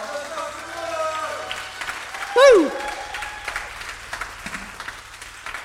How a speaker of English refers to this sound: Y'all give another, or continue to give him a big round of applause.